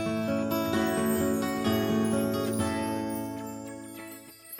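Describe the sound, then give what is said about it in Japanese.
A guitar, held by the fox character in an animal concert, plays sustained, ringing chords at a steady, moderate volume with no voices, the notes holding together and tapering off slightly toward the end. “キツネさんが持ってるのはギター”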